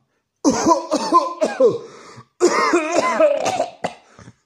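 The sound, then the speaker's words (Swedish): A voice acts out strained, effortful coughing: two long runs of hoarse, voiced hacks and throat-clearing sounds with a short pause between, fairly loud. “Hostade trollgubben av alla sina krafter.”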